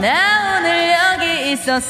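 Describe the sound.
A single voice on a radio show, given an echo effect by the show's director, speaks a short phrase drenched in echo and reverb, the words smeared and trailing into each other so the sound lingers, fairly loud throughout.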